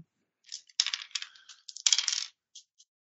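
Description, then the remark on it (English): Dice clatter and rattle across a table in a couple of quick bursts as they are rolled for a persuasion check, followed by two faint settling clicks, with no voices. “Oh, dice, you need to go away.”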